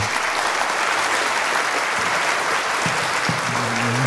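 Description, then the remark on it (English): A dense, steady burst of crowd applause, played as a sound effect, fills the whole stretch at full strength, a broad wash of many hands clapping with no pauses, and a faint voice surfaces briefly near the end. “I was ready with oh, my clapping went away. There it is, though.”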